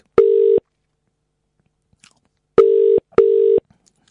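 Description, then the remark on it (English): An outgoing phone call's ringing tone: steady low electronic buzzes, a single burst, then a pause, then a quick double burst, clear and loud with nothing else in the background. “Oh, he's ringing now.”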